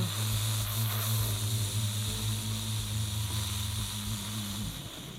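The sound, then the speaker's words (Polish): Someone imitates a nuclear bomb explosion with their voice: a long, steady roar of breathy hiss over a low, buzzing hum, held loud for about five seconds before tapering off. “Więc to mnie, ja moja, moja interpretacja bomby nuklearnej brzmiałaby jakoś tak.”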